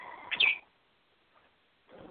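A pet bird, Tony Bird, lets out a sharp, shrill scream, followed by a pause and then a burst of softer chirping near the end.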